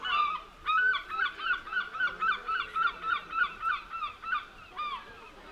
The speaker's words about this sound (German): Direkt neben uns auf der Brücke standen mehr als 20 Angler entlang der Brüstung und warteten geduldig auf den nächsten Fang, während über uns einige Möwen kreischten und ihre Runden zogen.